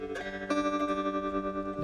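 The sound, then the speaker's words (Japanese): An electric guitar chord rings out under a tremolo effect set faster, its volume pulsing rapidly and evenly up and down. Loud, with no voices. “これあのトレモロっていうエフェクトでうん、なんていうんですかね、ただ音が、こう、うんと、音量が上がったり下がったりするだけなんですよね。だから、一番エフェクトの中でも単純なエフェクトなんですけども、この音が上下するってだけでなんでこんな気持ちいいんですかねちょっと早くするとこんな感じで”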